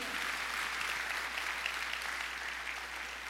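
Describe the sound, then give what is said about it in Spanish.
An audience bursts into loud, sustained applause, a dense wash of clapping that holds steady for a few seconds without any talking over it. “Si estás de acuerdo, hace un aplauso fuerte, fuerte, fuerte.”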